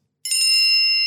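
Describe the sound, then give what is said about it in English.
A single bright bell ding strikes sharply and keeps ringing with a clear, shimmering metallic tone, fairly loud, with no voices around it; a warning tone marking five minutes of a six-minute time limit. “You don't have to go for the whole six minutes, but if you do, you will get a warning tone and it will sound something like this”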